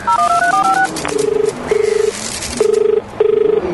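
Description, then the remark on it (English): A quick run of stepped satellite phone keypad dialing beeps, followed by four evenly spaced buzzing ring tones, fairly loud with no one talking. “Give it to me and I'll call Steve Tupper.”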